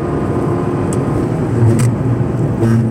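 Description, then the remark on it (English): A car engine accelerates to pass a truck with a loud, steady low rumble, a faint whooshing hiss drifting over it, and no one talking. “Can I pass this guy? Yep, we're gonna pass him.”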